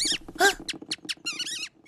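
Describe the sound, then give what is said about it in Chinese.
A run of high, quick squeaks in short chirping bursts, with a longer wavering squeal near the end, from a mouse hurrying along. “那只老鼠很匆忙。”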